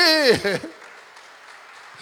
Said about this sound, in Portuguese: Amém ou não amém? Vamos aplaudindo nesta noite,